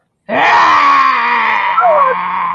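A woman's loud, sustained scream of terror, starting abruptly and holding for over two seconds with a slightly wavering pitch, close and intense, with no other sounds around it.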